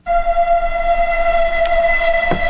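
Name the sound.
train arriving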